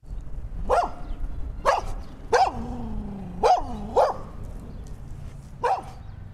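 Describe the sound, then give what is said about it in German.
A nervous, excited dog barks in short bursts, about six sharp yips with a brief whine drawn out between them, fairly loud with no one talking. “Mäh, das ist ja schon wieder ein Hund, klingt aber etwas nervös für meinen Geschmack aufgeregter Typ irgendwie.”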